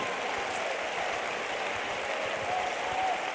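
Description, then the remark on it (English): A crowd claps their hands to the Lord steadily, a dense wash of many hands at once, sustained at an even level throughout without pauses or voices. “Clap your hands to the Lord again, will you?”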